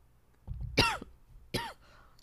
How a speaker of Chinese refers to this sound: 完了，连咳嗽都录进去了。